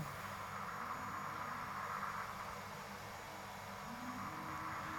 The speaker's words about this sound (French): Alors ce frigo, vous avez manifestement euh, vécu avec lui. Vous l'avez beaucoup écouté, vous l'avez percé à jour. Oui, oui, je l'ai, beaucoup écouté.